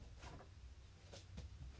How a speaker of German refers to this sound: Ich mach kurz das Fenster zu, sonst ist das hier laut.